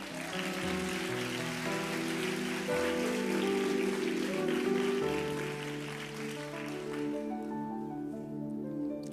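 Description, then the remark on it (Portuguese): An audience applauds in a dense, steady patter of clapping that lasts several seconds, with sustained musical tones underneath, and the clapping thins out toward the end. “Alguém entendeu e aplaudiu. Acho bom o resto aplaudir.”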